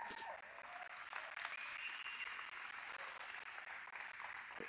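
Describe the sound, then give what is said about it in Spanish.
A church audience applauds the Lord steadily, a dense wash of many hands clapping at once that holds at an even level throughout, with a few faint voices mixed in. “Están planeando algo impresionante el equipo de creatividad, sí denle un aplauso al Señor por eso.”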